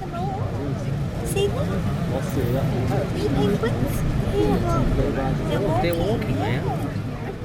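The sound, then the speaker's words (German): A dense crowd of many people chattering at once at a penguin colony, a steady babble of overlapping voices with no single speaker standing out and no penguins heard, accompanied by a low rumbling background like an engine or wind. “Eine völlig andere Perspektive als die optische, denn man hört keinen einzigen Pinguin, dafür aber umso mehr Menschen.”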